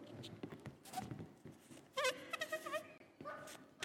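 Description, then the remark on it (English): A balloon lets out its air in a squealing, warbling whine, the pitch wavering through several rising and falling bursts over a rough, hissy rush, fairly loud. “And this is what Paul is encouraging, and we need to deflate that balloon, and that's what the sound of humility.”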